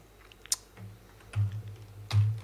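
A few sharp clicks of computer keys being pressed, irregularly spaced, with a couple of heavier thumps as keys bottom out, and no talking.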